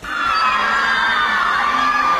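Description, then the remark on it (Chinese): A crowd of fans of the actor Lee Min-ho screams and cheers at one of his appearances in China, a dense wall of high-pitched shrieks and yells that stays loud and steady throughout, with no individual voice standing out. “凡是李明浩所到之处，必是人潮涌动，尖叫爆棚。”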